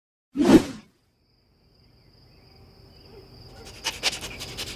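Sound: dog panting and barking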